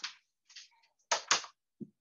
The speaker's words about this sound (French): et je ferme ma porte